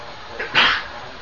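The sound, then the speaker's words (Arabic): A single sneeze: a faint catch of breath, then a sharp, breathy burst that quickly fades, standing alone against a quiet background. “يرحمك الله”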